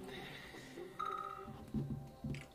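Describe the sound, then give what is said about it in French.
A telephone rings with a brief electronic tone, steady and moderately loud, followed by a couple of short vocal sounds. “je te jure, celle là le téléphone. Toujours quand c'est Attends.”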